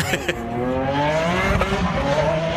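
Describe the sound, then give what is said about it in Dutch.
A Lamborghini sports car engine revs loudly, its pitch climbing in a sustained roar with a brief sharp pop partway through, continuous across the whole moment. “Weet je, dit, hoort, dit past echt bij, eh, bij Lamborghini natuurlijk.”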